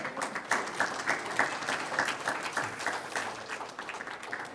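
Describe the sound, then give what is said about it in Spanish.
An audience applauds steadily, many hands clapping in a dense, even wash of sharp claps that holds at a consistent level throughout, with no speech over it. “un aplauso al Señor.”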